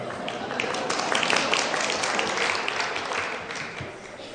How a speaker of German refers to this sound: Ich gehe mal davon aus, jetzt haben nur Frauen geklatscht.